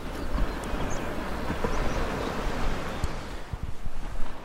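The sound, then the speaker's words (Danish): Very small waves roll in and lap gently at the shore of a stretch of coast in a steady, soft wash with little splashes and clucks over a light background rush, with no voices present. “Men nu er det ligesom, nu er det begyndt, nu kommer de rullende ind, og det er, det er nogle ganske små bølger, men de laver lige det der hyggelige lille kluk.”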